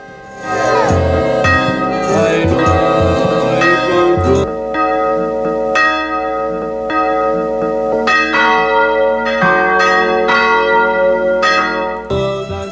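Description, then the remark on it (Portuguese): A bell is rung to call for attention, ringing repeatedly in a loud, resonant clanging peal with rich lingering overtones that keep sustaining throughout, prominent with no talking. “Vou tocar até o sino para chamar a sua atenção.”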